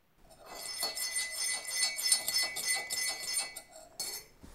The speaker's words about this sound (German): Und äh, Bert, ihr, Rentier, ihr Rentierfreund, spannte sich selbst ein in den Schlitten und sie fuhren mit dem wunderbaren Schlittengeräusch davon in den Winter, Winterwunderwald.